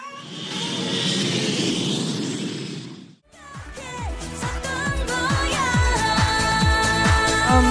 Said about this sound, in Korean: 자, 그럼 비행기 이륙하도록 하겠습니다.